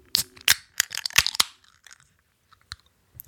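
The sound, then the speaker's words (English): Drink cans cracked open and poured: a quick burst of sharp, crunchy pops and clicks during the first second and a half, then a few scattered faint clicks, with no voices. “So, well, there's only one way to find out, and that's to crack these things open and pour them up.”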